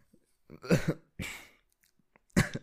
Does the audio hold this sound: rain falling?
no